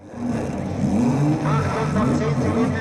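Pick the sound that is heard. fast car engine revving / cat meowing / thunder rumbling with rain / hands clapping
fast car engine revving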